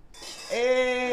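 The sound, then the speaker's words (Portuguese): Glasses clink together in a toast, a bright strike followed by a sustained ringing tone that lingers to the end. Fairly loud, with no talking. “E faltou o brinde, vamos é, brindar. Vamos lá, vamos brindar.”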